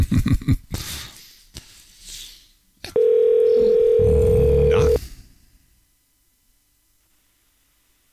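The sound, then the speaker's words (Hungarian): A telephone ringback tone while calling a listener sounds once as a steady, loud two-second beep, preceded by brief muffled background noise and followed by near silence. “Hívjuk a naphallgatóját közben.”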